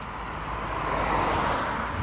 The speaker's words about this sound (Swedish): Jag ska, jag ska rikta mikrofonen så ni hör hur mycket bilar det är en liten stund. Vänta lite, här kommer bilar.